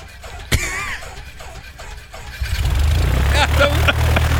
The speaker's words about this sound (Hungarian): De milyen szépen jár. Látod, hogy tartja az alapjáratot? Na jó. Hát milyen szép stabil. Tartja az alapjáratot